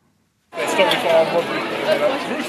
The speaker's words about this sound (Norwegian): Kaotiske tilstander utenfor teateret nær Piccadilly Circus i går kveld.